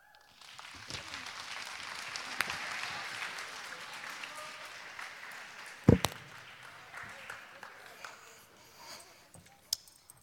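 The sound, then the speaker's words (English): Audience applause for students and leaders who shared: a steady wash of many hands clapping that holds for several seconds, then thins out, with one sharp thump midway and a few scattered claps trailing at the end. “Let's get one more quick round of applause for our students and leaders that are willing to share.”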